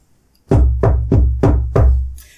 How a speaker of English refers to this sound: And there was no one at the door. So it, it was a very clear and sharp sound of knocking.